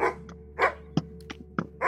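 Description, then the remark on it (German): A dog on a neighbouring farm barks repeatedly in short, sharp bursts, about five barks in under two seconds with uneven spacing, over a low steady background hum. “In der Zwischenzeit bellt der Hund vom Nachbarhof.”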